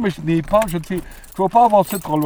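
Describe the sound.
A man talks steadily while keys jingle briefly as he uses the key to enter a buvette, a light metallic rattle that rises for a moment under his voice.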